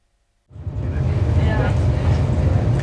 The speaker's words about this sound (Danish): Sjælland farer forbi uden for vinduet. Solen lyser markerne op. Jeg har forladt København. Sidder i et tog med kurs mod Aalborg, men øh, jeg hopper af i Sorø